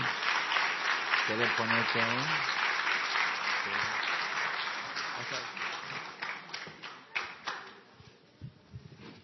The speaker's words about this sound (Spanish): Vení, pastor. Un fuerte aplauso por el pastor.